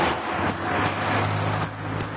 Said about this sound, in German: Ja, jetzt komme ich hier an die Straße. Da sind wahrscheinlich wieder jetzt die Autos auf der Autobahn.